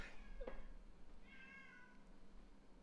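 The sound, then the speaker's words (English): A cat in the hallway, not in the same room, meows twice, a short cry followed by a longer drawn-out yowl, with no one talking. “Oh, he's come through now, but he was just oh, in the hallway screaming.”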